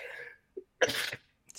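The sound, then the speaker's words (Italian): A single sharp sneeze bursts out, preceded by a brief intake of breath, with a faint trailing sound afterward and no speech. “Salute.”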